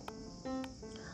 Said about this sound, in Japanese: さあセミが鳴いております